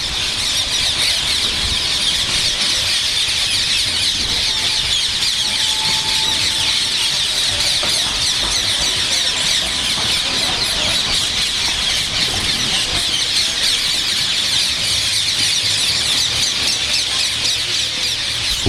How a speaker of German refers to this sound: aber mein Vogel der Woche ist der sehr soziale und immer häufiger und immer weiter nach Norden vordringende Halsbandsittich.